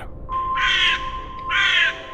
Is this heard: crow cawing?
yes